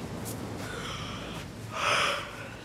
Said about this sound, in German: Es ist spät, Captain. Sie sollten schlafen. Worsley gähnt